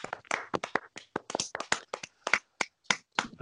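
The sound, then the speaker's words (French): A few hosts clap together for a few seconds, the sharp claps quick and slightly uneven in rhythm, steady in loudness without building into full applause. No one speaks. “Donc je pense qu'on peut tous s'applaudir les mecs parce que ça fait plaisir.”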